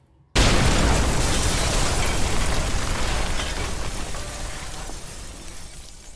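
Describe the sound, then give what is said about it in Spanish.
After a brief moment of quiet, a sudden, deafening explosion erupts in a metro station, then a dense roaring rumble full of crackling debris that lingers and only slowly fades. “El metro había explotado.”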